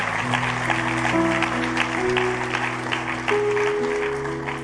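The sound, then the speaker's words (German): Steady audience applause at a church service for people who made the best decision of their lives, a dense wash of many hands clapping at fairly loud level, with sustained low organ-like tones underneath and no talking. “Wir dürfen den Personen erstmal einen dicken Applaus geben, die die beste Entscheidung ihres Lebens getroffen haben.”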